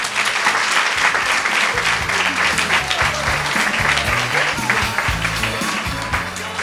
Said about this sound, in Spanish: bueno, pido un fuerte aplauso para despedir,